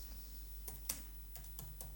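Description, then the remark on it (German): Several quick keystrokes on a computer keyboard, sharp clicks spaced irregularly over a couple of seconds, with a low steady hum underneath and no talking. “Muss ich mal nebenbei tippen.”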